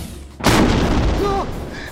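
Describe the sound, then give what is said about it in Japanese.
A sudden, loud crashing impact as a pitched curveball bends at a right angle and smashes through a garage shutter, rumbling on for about a second before easing off. No one speaks over it. “直角に曲がってガレージのシャッターを突き破った”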